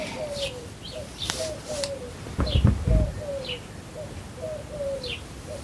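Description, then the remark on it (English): Collared doves coo over and over in a soft, steady rhythm, while smaller birds chirp faintly in the background and a brief low rumble passes midway. “And you can listen to the sound of the collared doves.”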